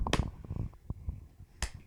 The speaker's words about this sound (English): Do not slow clap your mother.